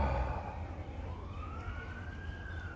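A siren wails from outside, its pitch sweeping slowly upward over low road rumble, steady throughout, with no one speaking.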